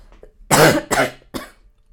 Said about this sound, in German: ja, der Corona-Husten, da ist er wieder.